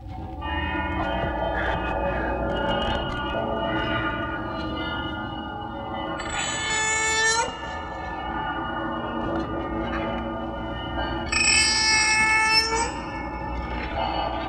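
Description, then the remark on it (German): A dense, harsh electronic drone carries an electronically amplified cat cry, shrieking and metallic, which swells into two piercing wails partway through. The eerie horror-score texture, from the soundtrack of the film The Texas Chainsaw Massacre, stays loud and unbroken, with no speech. “Diese elektronisch verstärkte Katze am Anfang, ne?”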